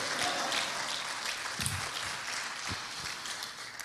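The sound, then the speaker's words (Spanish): An audience claps steadily and fairly loudly for the King (the Lord), a dense crackle of many hands with a few heavier individual claps standing out, and no voices heard. “Déselo fuerte al rey, déselo con fuerza.”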